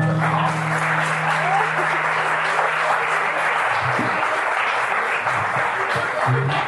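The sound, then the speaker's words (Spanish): A crowd applauds Mañe Rodríguez steadily, a dense, continuous wash of clapping that stays loud for several seconds, with a low steady hum fading out partway through. “Mañe, Mañe Rodríguez merece el aplauso de ustedes porque este”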